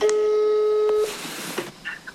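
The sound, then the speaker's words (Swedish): A single steady ringback tone of an outgoing phone call to actress and journalist Alexa Lundberg sounds for about a second, then cuts off into soft line hiss and faint clicks as the call connects. “Så därför ringde jag till Alexa Lundberg, hon är skådespelare och journalist”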